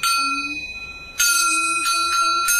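A small Nanyin xiangzhan gong is struck about five times in a Nanyin tutorial, each hit ringing with bright, high metallic overtones. A quieter stroke opens, then sharper, louder strikes follow in an uneven rhythm.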